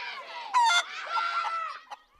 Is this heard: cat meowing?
no